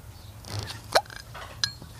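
Two sharp glass clinks from an ink bottle being taken out of a bag, the first bright and ringing around one second in, a lighter tap following about half a second later, over faint low rumble.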